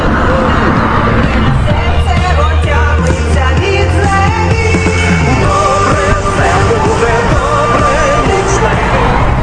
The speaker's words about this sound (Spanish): Eh, de fondo hay una música que ellos tienen puesta aquí. Eh, que yo diría que es un, este, está cantada en, ucraniano, entiendo, o en ruso.